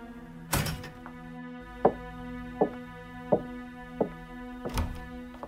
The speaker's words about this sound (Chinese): 这时候，却有人开门进来了。